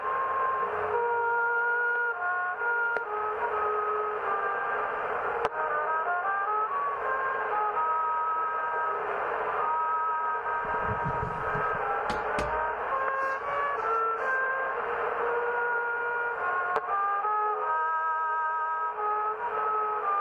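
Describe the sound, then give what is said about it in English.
A trumpet melody plays far off, thin and muffled as if through an old radio, with a steady hiss of static underneath for the whole stretch and a brief low rumble midway. “my favorite intros that I do is that distant trumpet trumpet static.”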